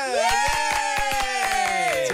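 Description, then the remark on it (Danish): Audience applause welcoming half of a band: steady, rhythmic claps at a brisk even pace beneath a loud, sustained, wavering vocal tone like a long cheer, continuous for about two seconds. “Ja, det, det er fedt nok, at ja, halvdelen, og alligevel får vi et bifald.”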